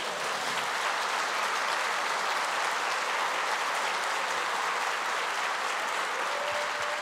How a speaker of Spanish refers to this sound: ¿Cuántos dan un fuerte aplauso al Señor por eso?